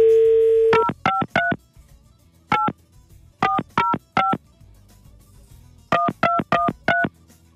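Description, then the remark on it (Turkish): A steady telephone dial tone cuts off, then a phone number is keyed in as a series of short touch-tone beeps in quick bursts with brief pauses between groups, as a radio host calls a listener, with no voices present. “Bir de Elif'i deneyelim şöyle.”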